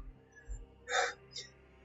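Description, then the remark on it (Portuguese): Heavy, labored breathing from someone watching in a dark corner, growing more intense and more difficult: one loud, harsh gasp followed by a shorter, fainter breath, strained, with no one talking. “Quando você se dá conta, em um dos cantos escuros tem alguém te observando uma respiração pesada que vai ficando mais intensa, vai ficando mais, mais difícil,”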